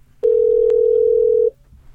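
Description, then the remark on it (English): A telephone dial tone while placing a call: one steady, unbroken electronic hum, holding for just over a second before cutting off into quiet. No one speaks. “So I say we got to get Reginae on the phone”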